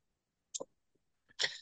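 Two short, harsh coughs with a brief pause between them. The first is quick and sharp, and the second is louder, rougher and slightly longer. No talking.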